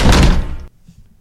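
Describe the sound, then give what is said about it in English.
The front door of a house thuds shut with a heavy slam that rings briefly before cutting off sharply, leaving faint low rumbling and near silence. “Have I showed you the front door?”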